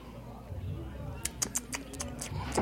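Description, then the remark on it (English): Quiet sipping of beer: a quick series of short, wet slurps and lip smacks, with a faint low hum underneath. “This is me sipping beer.”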